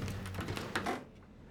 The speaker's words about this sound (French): Extérieur, rue, jour. En ouvrant la porte